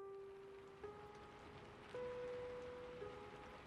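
Steady rain patters on hard surfaces in a dense, even hiss at a bus stop as a passenger gets off a bus with an umbrella, with a low droning hum that shifts pitch slightly underneath. No one speaks.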